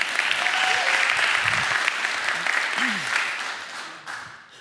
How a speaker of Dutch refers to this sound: Dus eh, geef ze een applausje.